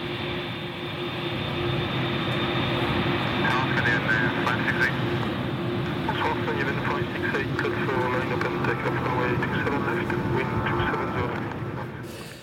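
A steady, loud airplane roar of a flight from Roissy to Kathmandu fills the whole stretch, a continuous engine drone with a low hum beneath it and faint, muffled cabin chatter mixed in, fading out at the end.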